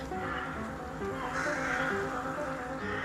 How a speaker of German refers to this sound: Hier in München, gleich hier auf diesem Baum, sehr verbreitet, das sind die Rabenkrähen.